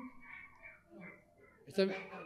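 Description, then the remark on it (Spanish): A dog lets out a short, sharp bark near the end, with a person's voice talking through the rest of the moment. “Olvídate del perro que está ladrando y concentrate en lo que estamos terminando de ver.”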